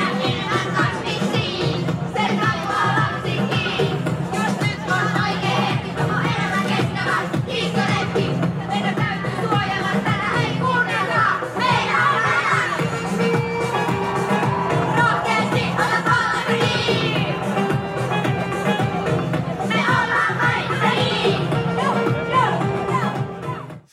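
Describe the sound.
A group of primary schoolchildren from Roihuvuori performs a climate rap they made, together outdoors at a climate march, loud and continuous, with crowd noise filling the background throughout.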